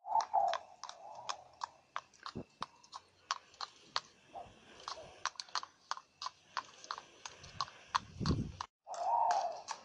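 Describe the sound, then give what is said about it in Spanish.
A horse's hooves clip-clop in a steady, brisk rhythm of sharp knocks as a girl rides it to fetch corn, clear, with a brief low rumble near the end and no voices. “Un día la niña se levantó y fue por maíz en su caballo.”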